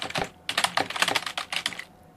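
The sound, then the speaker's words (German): Rapid typing of an email on a keyboard, done with paws, in irregular bursts of crisp clicking keystrokes, with a short pause before a longer run of taps; no voices. “Der Text steht. Gut gemacht. Und das mit Pfoten.”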